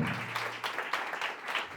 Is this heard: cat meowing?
no